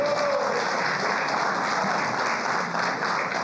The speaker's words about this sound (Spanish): Denle un fuerte aplauso al Rey de la Gloria.